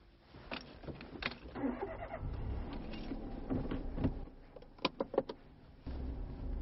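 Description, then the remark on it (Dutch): Another car approaches, its low engine drone holding steady, with a quick burst of sharp clicks and knocks toward the end and no one speaking. “andere auto, jongens”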